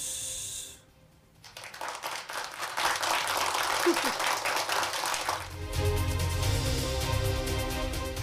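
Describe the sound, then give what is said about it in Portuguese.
After a brief lull, a steady burst of applause swells up and keeps going for several seconds, a dense, even wash of many hands clapping with no voices on top. “Parabéns. Aplausos.”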